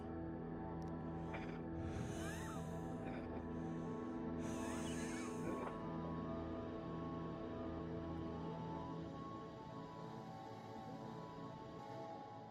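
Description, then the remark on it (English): Two slow, heavy breaths rise and fade early on, hushed, coming from directly behind the listener, over a steady low droning ambient hum that continues alone afterward. “You can hear a breathing directly behind you.”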